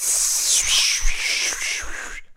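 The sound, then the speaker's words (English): A voice makes a sustained, loud hissing "shhh" to imitate static white noise, holding it steadily for about two seconds before cutting off abruptly. “Make it 25 tracks and see how many people buy it. Of, of static white noise.”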